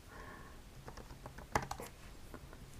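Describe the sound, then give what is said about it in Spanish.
Quiet, irregular computer keyboard typing as someone types a search into Google, with a handful of soft clicks and one sharper, louder keystroke near the middle, over a low background hum. “Eh, me encanta que se escuchen dos teclitas.”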